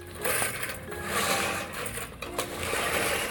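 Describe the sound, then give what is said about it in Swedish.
A manual, muscle-powered push reel mower cuts grass on a small home lawn in Espoo, Finland, its spinning blades making a steady, busy whirring clatter with a few sharp ticks, continuous for the whole stretch without any voices. “Min egen muskeldrivna knuffbara gräsklippare den ser i stora drag rätt mycket ut som Edwin Beard Buddings uppfinning från 1830.”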